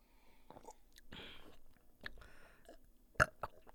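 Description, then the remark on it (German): Someone tries to burp after downing a drink from a glass in one go, producing only quiet throaty gulps, breathy pushes and small mouth clicks, then one sharper pop near the end without a real belch. “Schade, dass du nicht rülpsen kannst.”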